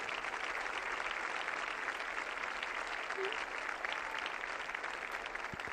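A large crowd at World Youth Day applauds a staged dance performance in front of the Pope, a dense, even wash of clapping that holds at a constant level for several seconds with no voices standing out.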